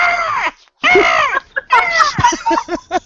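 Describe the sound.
Someone imitates a bald eagle's screech with their voice: two long, loud, wavering cries, then a quick run of shorter, choppy squawks, harsh.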